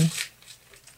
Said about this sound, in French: c'est ça le bruit que vous entendez dans le fond. C'est PH euh, qui ouvre son cadeau.